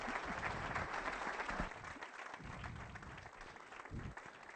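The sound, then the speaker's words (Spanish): An audience applauds to welcome a speaker, with a dense, steady wash of many hands clapping that stays loud and even throughout and eases only slightly after the first couple of seconds. “pero, pero bueno, les quería pedir un aplauso”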